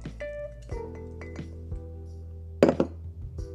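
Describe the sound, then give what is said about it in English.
A drinking glass with no ice in it clinks several times as it is handled, with bright ringing taps spread out irregularly and one louder knock near the end, and no voices. “Beautiful glass, but it don't got no ice in it.”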